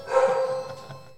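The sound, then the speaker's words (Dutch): A dog lets out a short burst of barking as the doorbell rings, a brief sharp woof that trails off quickly, heard at moderate volume with no one talking. “Ja, dat is onze hond, die eh, slaat aan als de bel gaat, de, ring.”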